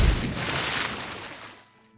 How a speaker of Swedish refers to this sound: hör plötsligt ljudet av vatten som forsar ned ifrån taket